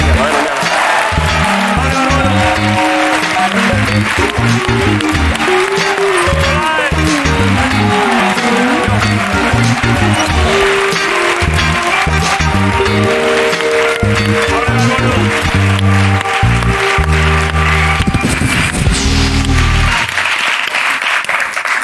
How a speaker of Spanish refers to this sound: Eh, bueno, sin más, un aplauso